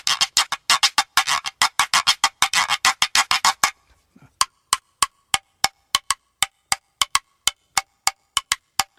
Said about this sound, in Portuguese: Esse foi o reco-reco de bambu.